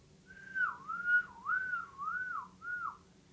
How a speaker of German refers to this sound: Ich habe gepfiffen.